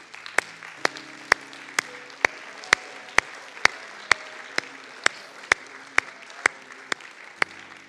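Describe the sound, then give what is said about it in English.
A church audience claps hands to Jesus in the morning in a steady, even beat, roughly two claps per second, loud, with faint sustained musical tones underneath and no talking. “Let's clap our hands to Jesus this morning.”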